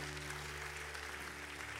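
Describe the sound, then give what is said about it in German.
An audience applauds steadily during a church service, a dense wash of many hands clapping at an even level throughout, with a faint low hum underneath and no one speaking. “Lass uns mal einen großartigen Applaus geben.”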